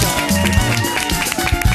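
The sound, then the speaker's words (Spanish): An audience applauds the young performers loudly and steadily at a music show, in a dense, crackling wash of clapping, with tonal music and crowd noise mixed in throughout. “que aplaudan a todos y ya Un aplauso para los chavales.”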